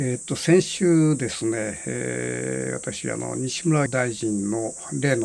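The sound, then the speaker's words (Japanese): Cicadas drone in a steady, high-pitched buzz from outdoors through a window left open on a hot day at the Hakkakudo in Boso, Japan, continuous and moderately faint beneath a man speaking. “ちょっと今あのセミの声が聞こえると思うんだけども久しぶりに、えー、房総の八角堂に来てちょっと暑いもんだからですねあの窓を開けっぱなしてますから風の音とか、えー、鳥の声、えー、セミの声が聞こえるかもしれません。”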